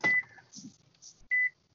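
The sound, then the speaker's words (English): Two sharp, steady, loud electronic beeps from a microwave oven as someone operates it, with a short pause between them and faint handling and clatter noises in the gap. “playing with the microwave.”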